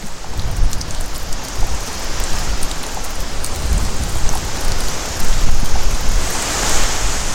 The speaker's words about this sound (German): Weiter westlich an der Atlantikküste sieht es so aus, als könnte da gleich etwas zukommen auf die Netze. Wolken ziehen auf und plötzlich ziehen sie durch die Netze. Und dann Wasser, Tropfen für Tropfen, ganz ohne Regen.